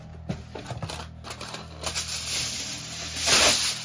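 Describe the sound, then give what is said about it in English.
A sheet of aluminum foil is pulled and torn from a roll to lay over parchment paper in a pan, making crinkly rasping and a quick series of clicking snaps that build to a louder crackling rip near the end. “We're going to cut one piece. Lay it on top of your parchment paper.”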